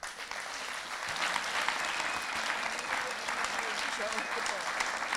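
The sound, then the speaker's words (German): An audience claps steadily for several seconds, a dense, even patter of many hands that stays loud throughout without breaking off. “Gerne noch einen Applaus.”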